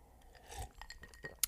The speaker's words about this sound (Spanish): Un trago más a mi café.